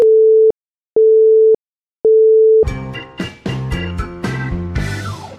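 A telephone busy tone after a call to the discrimination line is disconnected sounds three times, steady mid-pitched beeps of about half a second with even gaps, then loud instrumental music cuts in and takes over.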